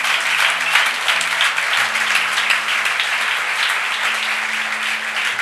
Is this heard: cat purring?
no